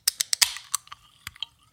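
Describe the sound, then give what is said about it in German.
A bottle of 4.9% alcohol beer being opened: a quick series of sharp metallic clicks and scrapes, a short hissy release of gas, then a few softer clinks trailing off. No one speaks. “Direkt mal hier meine Molle auf.”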